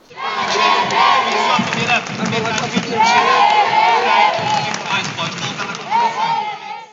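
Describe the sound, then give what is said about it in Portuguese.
A large crowd of esports fans cheers and shouts continuously for about seven seconds at the women's CS:GO finals of a university esports event, a dense roar of many voices with rising yells and chants, staying loud throughout with no clear pauses. “O sábado, primeiro dia das finais, começou com o CSGO feminino, com forte presença da torcida.”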